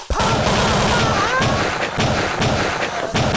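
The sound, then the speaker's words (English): Dense, rapid gunfire sound effects fill the scene, with repeated loud cracks and booms layered over a constant roaring, battle-like din, continuous throughout with no pauses. “sound effects here ah sazana morning inotoda zvepamusoro gunshots”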